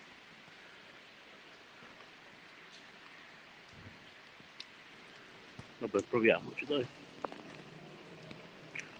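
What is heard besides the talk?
rain falling outdoors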